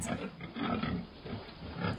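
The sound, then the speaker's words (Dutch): Pigs grunting, a run of rough, low snorting grunts coming in uneven bursts with short pauses between them. No voices are heard. “we luisteren zeker naar varkens.”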